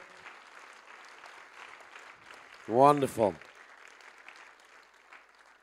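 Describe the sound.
A church audience claps steadily after a prayer, a dense, even patter of applause at moderate volume, while a man's voice briefly calls out a single exclamation over it midway.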